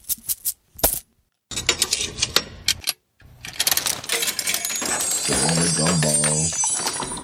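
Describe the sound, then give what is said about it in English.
Coins clink and jingle as they tumble out of a bag of coins taken from a shelf, a few sharp metallic drops first, then a longer, denser jangle that continues under a faint whirring tone. “reach up there on the shelf and grab that bag of coins the magician left for us.”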